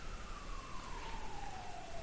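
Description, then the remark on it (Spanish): An ambulance siren passes outside, its steady tone sliding gradually lower in pitch as it moves away, over a constant hiss of background noise with no talking. “Claro, perdón por la ambulancia, ¿no?”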